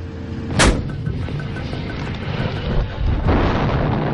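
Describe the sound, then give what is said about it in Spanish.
Heavy tank cannon fire aimed at Syrian tanks in the Jusnia valley: one sharp, booming blast, then a second duller boom a few seconds later, both over a constant low rumbling roar. No one speaks. “Svika apuntó a otro y volvió a disparar.”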